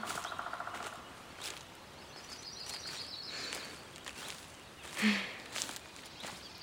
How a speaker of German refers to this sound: Wie der Wind in der Baumkrone rauscht.